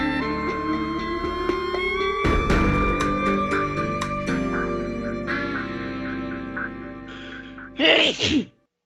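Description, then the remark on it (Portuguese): A single loud sneeze bursts out near the end, right after a stretch of dramatic music with heavy tonal hits that fades under it. “Saúde.”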